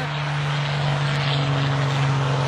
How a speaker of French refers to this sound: le bruit des, voitures te dérange pas trop